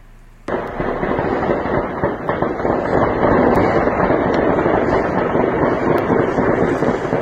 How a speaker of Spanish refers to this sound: Así sonaban anoche las balas en las calles de la ciudad de Colima. Ocho días consecutivos que los colimenses no pueden dormir de la angustia con este sonido en las calles afuera de sus casas.